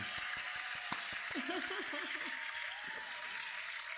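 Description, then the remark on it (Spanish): A crowd applauds steadily for about four seconds, a dense wash of clapping with a few sharper claps at the start and a brief wavering voice rising over it midway. “aplausos, aplausos.”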